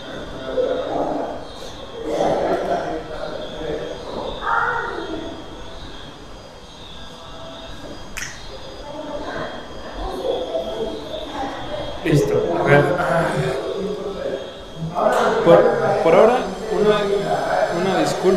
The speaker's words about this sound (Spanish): No es culpa mía, son condiciones de las oficinas. Tal vez están oyendo esa sierra eléctrica súper fuerte, que parece que la están agarrando aquí abajo, no estoy seguro.